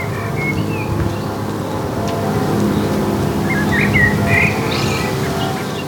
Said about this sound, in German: Mit Vogelgezwitscher.